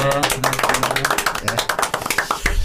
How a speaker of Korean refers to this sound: 네. 박수 한번 주셨습니다.